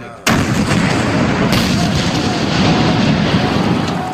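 French artillery shells explode about 200 metres away in a forest clearing near a German long-range gun, in March 1918: a sudden loud blast, then a second sharp burst about a second later, with a heavy continuous rumble and roar filling the rest.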